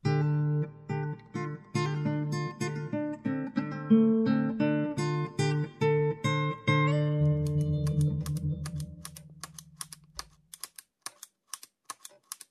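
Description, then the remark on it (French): Sharp clicks repeat in a quick, steady run over a low sustained musical drone as a pen is fidgeted with in a presidential office; the drone fades near the end while the clicks continue. “tu veux bien arrêter avec ce stylo C'est énervant à la fin.”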